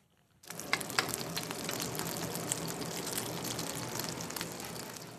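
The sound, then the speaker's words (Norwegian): Steady, crackling sizzle of Norwegian salt cod (klippfisk) frying in a pot at a restaurant in a food centre in Rio de Janeiro, Brazil, starting abruptly and continuing loud, with a dense hiss and scattered sharp pops throughout. “Bacalhau da Norvega, klippfisk fra Norge, freser i gryta på en av restaurantene i matsenteret Ladegi, et av de mest populære samlingssteder for bacalao-elskere her i Rio de Janeiro.”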